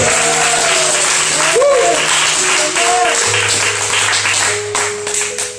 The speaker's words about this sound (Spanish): Y este es mi momento, en el nombre de Jesús, aplauda, grite, no sé lo que quiera hacer.